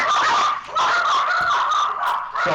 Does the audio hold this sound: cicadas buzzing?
no